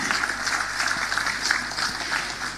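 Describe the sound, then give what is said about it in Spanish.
An audience applauds steadily at a public account event of the Municipality of Constitución, a dense crackle of many hands clapping at an even, fairly loud level throughout, with no voices over it. “Este aplauso es para todos quienes de una u otra forma llevan a Constitución en su corazón.”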